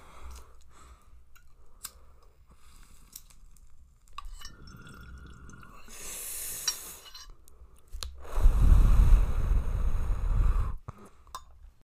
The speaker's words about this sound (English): I am going to take a hit today. So, if you got it, hit it. If you don't, it's okay.